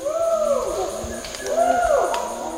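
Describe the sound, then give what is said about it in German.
Distant wild chimpanzee calls in the forest of Kibale National Park: two long hooting cries that swoop up and back down, one after another, carrying over a steady background hiss with no talking. “Die Schimpansen sind an manchen Stellen im Wald aus der Ferne zu hören.”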